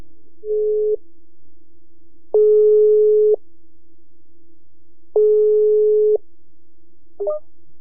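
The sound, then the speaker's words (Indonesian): A WhatsApp call ringback tone as a phone call is placed through WhatsApp: a short chime followed by two steady, one-second electronic tones spaced about three seconds apart, clear, with a brief blip at the end as the call connects. “Ya udah gua telepon lewat WA aja deh ya. Nih gua telepon nih.”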